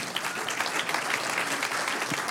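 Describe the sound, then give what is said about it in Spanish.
An audience breaks into sustained applause to the Lord, a dense, steady wash of many hands clapping at once with no voices standing out over it. “Un aplauso al Señor.”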